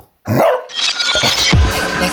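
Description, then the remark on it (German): A dog barks loudly, a quick burst of sharp barks followed by rough, noisy snarling, with no one talking. “Oh, Mist, der Hund hat unseren Outro-Spruch gefressen.”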